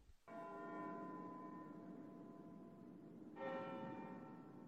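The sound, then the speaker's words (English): A church bell rings out twice on a Sunday as a dead man is taken to the churchyard, each strike blooming into a long, rich, harmonic hum that lingers and fades slowly before the second clang sounds at a steady pace, with no voices. “They heard a bell ringing.”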